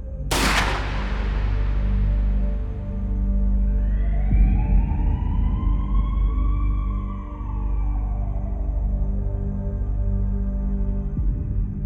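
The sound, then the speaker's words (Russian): A single loud gunshot cracks at the start and rings out, followed by a low rumble and a slow rising-and-falling siren-like wail. No one speaks. “Последнее, что я помню, как нажимаю кнопку устройства, а где-то за моей спиной раздается выстрел”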